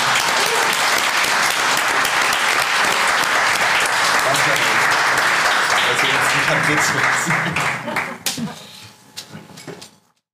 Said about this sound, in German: Danke für die Blindverkoster. Kurzer Applaus.